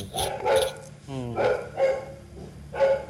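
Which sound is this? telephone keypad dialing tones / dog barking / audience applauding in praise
dog barking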